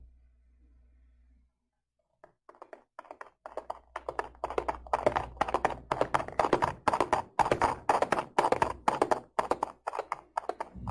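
horse galloping hooves

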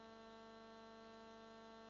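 refrigerator humming

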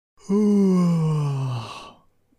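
yawn

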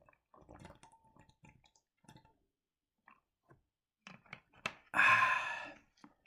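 drinking water

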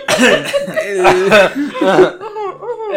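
cough

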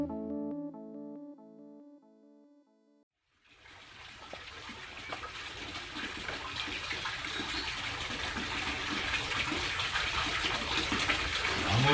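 water pouring

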